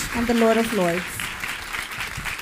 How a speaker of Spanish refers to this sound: Dele ese fuerte aplauso al Rey de Reyes y Señor de Señores.